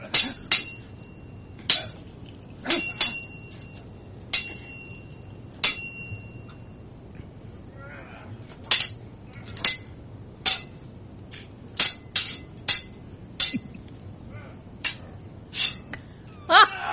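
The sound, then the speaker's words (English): A sword fight sound effect: sharp metallic clashes of blades arrive in irregular bursts, the early strikes ringing on with a bright high tone, and no voices are heard. “So we can all awkwardly sit here for twenty seconds as we listen to a sword fight.”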